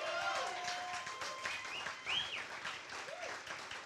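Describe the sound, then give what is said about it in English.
A crowd claps and applauds steadily, a dense wash of hand claps with a few voices calling out and whooping over it, holding at a fairly even level throughout. “I think we ought to give God a hand right there.”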